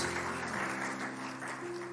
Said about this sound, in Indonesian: Mari berikan dulu tepuk tangan bagi Tuhan Yesus.